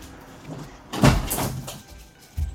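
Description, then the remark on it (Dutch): A window is shut: a broad scraping, sliding rush of about half a second, followed by a softer rattle and a dull low thump at the end. No one speaks. “ik doe even het raam dicht.”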